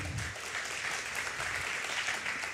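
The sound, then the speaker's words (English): An audience claps steadily, a dense, continuous patter of many hands at an even loudness, with no voices speaking over it. “I love, he can't hear your clapping, but it's still really cool.”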